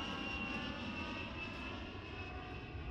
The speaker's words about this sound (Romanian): Imaginea unui gras care umple cu ceafa lui hubloul când avionul se ridică în aer pentru prima mea călătorie printre nori.